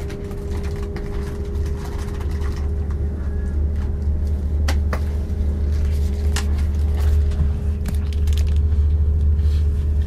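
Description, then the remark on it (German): Steady rustling, like a bag or wrapper being handled by a boy, goes on for the whole stretch with a few sharper crinkles, over a constant low engine rumble as if inside a moving vehicle. “Erst das Rascheln und dann ganz kurz, wie ich auf diesen Jungen reagiere.”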